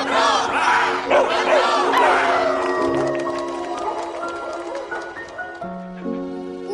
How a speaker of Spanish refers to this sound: Venga, ahora vamos a gritar todos bien fuerte en honor de los nuevos exploradores intrépidos señor. ¿Preparados?